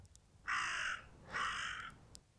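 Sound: raven cawing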